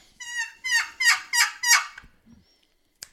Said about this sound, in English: She'll yelp two or three times. Let's say she yelps three times.